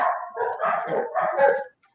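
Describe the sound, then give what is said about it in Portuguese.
Several dogs on the other side of a house bark in a rapid, overlapping volley for about two seconds, the yaps blending into a continuous, moderately loud racket, with no talking. “Ah, eles estão lá do outro lado da casa e fazem um barulho enorme aqui.”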